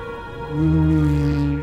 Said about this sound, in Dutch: en ik begin er vandaag over omdat het tot voor kort nog onduidelijk was hoe walvissen die geluiden konden maken.